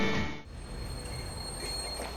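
Train wheels squeal against the rails in a steady, piercing metallic whine over a continuous rumbling roar, loud throughout, with a brief louder burst at the start and no voices.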